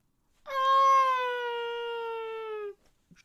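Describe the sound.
A voice imitates the siren of a diving Stuka dive bomber: one loud, sustained, nasal wail lasting about two seconds, its pitch sagging slightly before cutting off into silence.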